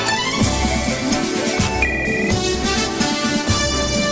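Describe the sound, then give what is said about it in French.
The upbeat, bright theme tune of the animated series Spirou et Fantasio plays loudly and continuously, with a steady thumping beat under busy, bell-like melodic lines and no voices. “On adore magnifique cette musique.”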